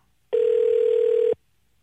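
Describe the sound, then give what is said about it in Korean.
A single steady telephone tone, a flat mid-pitched beep lasting about one second, sounding alone and fairly loud before cutting off cleanly, as a radio host places a call to a listener. “아, 전화 한번”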